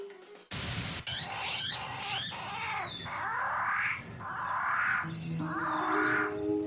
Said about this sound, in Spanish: ponle a Discovery que ya empieza el ballet Bolshoi de las aves de Nueva Guinea